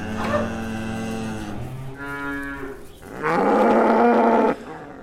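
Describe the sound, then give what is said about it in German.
Cows kept on arable fields in a regenerative farming system moo repeatedly, three long drawn-out calls in a row, the last one loudest and most strained, with no talking in between. “Es geht um regenerative Formen der Landwirtschaft, um widerstandsfähige Landnutzungssysteme, die Äcker und Grünflächen mit Sträuchern, Bäumen und Tieren wieder zueinander bringen bei ihm stehen die Kühe auch auf den Ackerflächen.”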